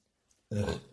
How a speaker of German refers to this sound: Ich muss so gottlos rülpsen von dem Delay.